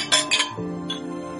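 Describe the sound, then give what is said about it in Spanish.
Glasses clink together in a toast, two bright, ringing taps in quick succession followed by a softer third chime, with a sustained glassy ring lingering afterward. “Venga, vamos a dejarnos de tonterías, a brindar.”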